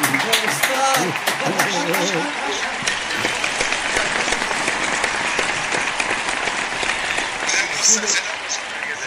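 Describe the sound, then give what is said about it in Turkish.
A crowd applauds steadily and loudly for several seconds, dense clapping filling the space, with a few voices briefly heard at the start. “Ya bu alkışın ötesinde başka bir şey lazım.”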